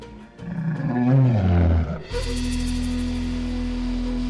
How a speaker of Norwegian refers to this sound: En levende, pustende løve. Selv om løven og den som sitter i cella, er skilt av robuste metallstenger, så forblir denne skremmende nærheten mellom menneske og rovdyr.